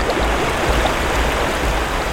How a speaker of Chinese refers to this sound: 这时，冒出了一条好大好宽的河流，滚滚的河水，谁都没有办法穿越。